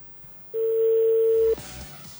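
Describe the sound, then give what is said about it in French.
A steady, loud telephone dial tone holds one unbroken pitch for about a second, then cuts off abruptly, leaving a faint rustle behind. “Là, on rentre dans le téléphone de”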